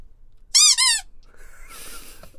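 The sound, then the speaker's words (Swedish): A squeaky toy shark squeezed twice in quick succession as a spoiler warning signal, producing two loud, high-pitched wheezing squeaks with a wavering tone, followed by a fainter rustling hiss. “Uh, Okej, okay, vi blåser, eller vi piper med spoilerhajen”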